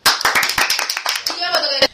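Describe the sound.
An audience breaks into brisk, loud applause on request for a man being introduced, a dense patter of many hands clapping, with a voice or cheer rising through the clapping toward the end.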